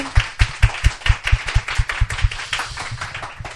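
A small group claps steadily, about a dozen sharp hand claps in a quick, even rhythm that loosens toward the end, close and fairly loud with no voices over it.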